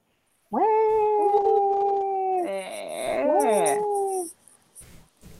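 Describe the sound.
A voice imitating a crying baby: a loud, drawn-out wail lasting about four seconds, holding a steady pitch, then wavering and briefly rising before cutting off into near silence.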